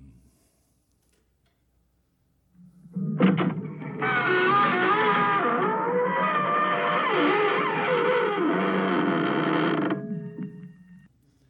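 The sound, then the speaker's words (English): After a stretch of silence, a loud, drawn-out creak of an old door slowly swinging open groans for several seconds, its pitch wavering, heard alone before fading out: the creaky door of the inner sanctum from the opening of the show Inner Sanctum. “And then this old creaky door of the inner sanctum began to open.”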